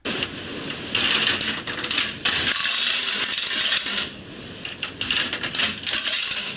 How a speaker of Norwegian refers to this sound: dette her er spill, spillkronegreier. dette her. Kronespill!